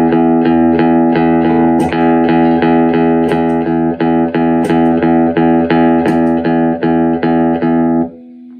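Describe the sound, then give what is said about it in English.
Electric guitar played through an old Dynacomp compressor pedal set towards unity gain with the sensitivity high, cutting the low end: a steady, rhythmic run of chords held at a flat, even level with little attack spike, ringing bright before cutting off near the end. No voices. “You know, people think that you put an old Dynacomp on, it sounds like the guitar's been mastered or something.”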